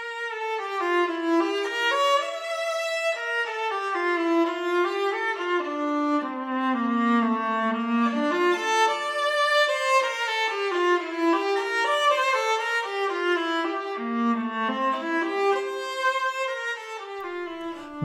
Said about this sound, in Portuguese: Acabamos de ouvir o Prelúdio e Fuga em Ré menor do alemão Johann Sebastian Bach, tocado por nada menos do que uma viola.